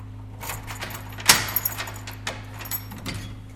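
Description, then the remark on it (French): Keys jangle as the hospital's acting medical director unlocks and opens hospital doors in Drodro, some of which had been shut for several weeks, with a sharp metallic clink near the start and scattered rattles and clicks after, over a low steady hum. No one speaks. “le médecin directeur par intérim de l'hôpital, ouvre des portes dont certaines ont été fermées pendant quelques semaines.”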